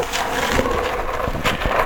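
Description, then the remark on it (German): Gritty scraping and rustling as a cat litter box is cleaned, with several scoops and crunchy shuffles of litter at a steady, uneven rhythm, fairly loud and with no talking. “Katzenklo wird jetzt sozusagen sauber gemacht.”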